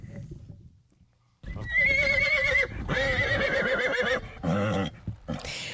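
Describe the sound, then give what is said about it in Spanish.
A horse neighs loudly, a long quavering whinny in several bursts, with faint hoof clip-clops beneath it after a quiet opening. “Se nos coló por ahí el relinchido de prometido.”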